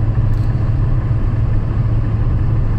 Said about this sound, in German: Jedenfalls äh, haben wir eine Achterbahn, die nicht mal so üppig hoch ist. Wir haben einen Onboard-Soundtrack.